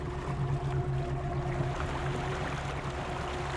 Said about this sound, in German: Wo der Paul flott den Motor vom Boot wieder anlässt, ist er immer noch hässig auf die Mel.